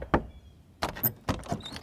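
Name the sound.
knocking on a door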